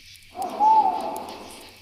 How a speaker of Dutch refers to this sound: Ze horen de uilen die jagen op de muizen.